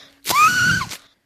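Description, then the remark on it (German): A party horn from a summer party goodie bag is blown once: a loud, buzzy, reedy blast lasting under a second, its pitch bending upward before it cuts off abruptly. No one speaks. “Äh, eine Partytröte.”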